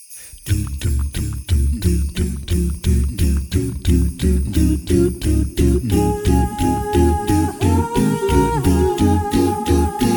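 A vocal group sings an old festive winter song about the joy of sliding over the snow on a sleigh, opening with a steady pulsing rhythm and bright jingling, then sustained close harmonies swelling in partway through, loud.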